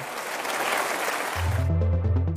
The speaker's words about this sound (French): Volodymyr Zelensky a été accueilli par une standing ovation